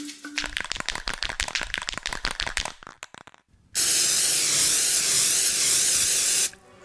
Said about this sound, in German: Sein Gift ist ätzend. Achtung, Chef, er sprüht.